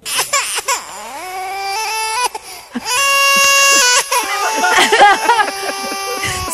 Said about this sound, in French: Je suis dans ma pause à l'hôpital. Je suis à l'étage de la pouponnière. Je fais pleurer des bébés sur l'autotune. Ça sonne vraiment bien. Écoute ça.